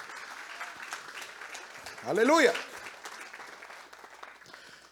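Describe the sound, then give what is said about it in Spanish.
A church audience applauds the Lord God Almighty after a prayer, a dense crackle of many hands clapping throughout, while a single voice rises in a loud, drawn-out shout over the clapping midway. “Le doy un aplauso al Señor Dios Todopoderoso.”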